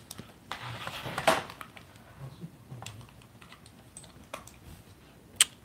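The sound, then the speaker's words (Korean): Scattered clicks and taps of a computer keyboard and mouse on a frozen computer whose mouse has stopped responding, irregular, with a few sharper clicks standing out over a quiet background. “내가 마우스를 좀 잘못 건드려서 이것도 안 되네.”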